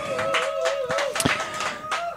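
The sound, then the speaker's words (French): An audience applauds a painting just presented, clapping in a dense, steady patter of many hands for a couple of seconds, with a sustained tonal hum running underneath. “On peut l'applaudir.”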